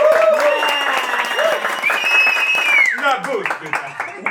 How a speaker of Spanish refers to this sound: Ok, chicos, ¿cómo están? Eh, vamos a hacer algo. Primero, un aplauso, por favor, todos, que se escuche.